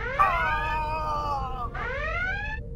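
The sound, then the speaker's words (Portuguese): A sci-fi starship alert alarm: a loud, buzzy electronic tone that slowly slides downward, cuts off, then whoops back up in a second sweep, with no voices. “E a gente tem um. Alerta O'Brien!”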